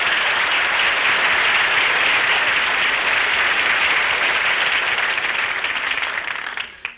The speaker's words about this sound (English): Well, if, if all you want is some applause, Don, we can fix that. Folks, how about giving Don Wilson a big hand?